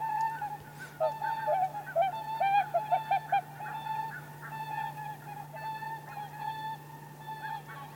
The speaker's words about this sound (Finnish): Onpas hieno toinen. Kuunnellaan Joo, joutsenia tässä. Kuunnellaan.